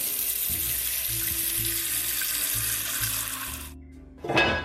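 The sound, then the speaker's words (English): Water runs steadily from a faucet into a large pot being filled to cook pasta, a broad rushing hiss with a rising resonant tone as it fills, then the flow stops abruptly before a brief clank near the end. “And the next thing I'm going to do is get a big pot and I'm going to fill that with water to cook our pasta.”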